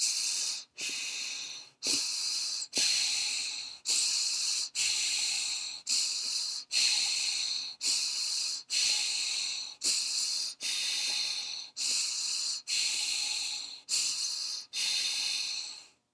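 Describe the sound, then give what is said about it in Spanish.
Forceful, hissing breaths repeat steadily about once per second, around fifteen in a row, loud with brief gaps between them, as breath-of-fire breathing in a guided breathing exercise of three cycles. No talking. “Recuerda que vamos a hacer tres ciclos de respiración de fuego.”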